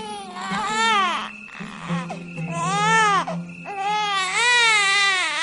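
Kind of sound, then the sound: human body sound, newborn baby crying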